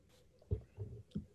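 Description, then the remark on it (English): Soft chewing with a few moist, muffled bites at an uneven pace, and no talking in between. “Damn, you're making me hungry, dude.”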